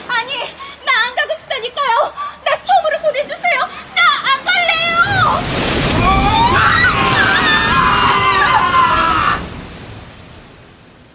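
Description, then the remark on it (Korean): A voice speaks briefly, then a loud, surging rush of ocean water swells up and roars for several seconds as people are sucked down into the deep abyss of the sea, churning and whooshing before fading away at the end. “우리들은 바닷속 깊은 심연으로 빨려 들어갔습니다.”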